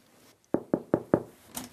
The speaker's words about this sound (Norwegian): Menneskehandelgruppa velger å gripe inn og banker på hotelldøra